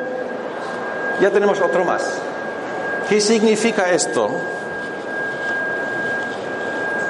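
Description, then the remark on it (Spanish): A high-pitched electronic tone from a signal generator, its frequency being raised, drives a vibrating plate of salt, humming unbroken throughout while a man speaks over it in two short bursts amid faint background noise. “Eh, entonces, pues vamos subiendo y a la medida que subimos la frecuencia, fíjese, ¡bum!”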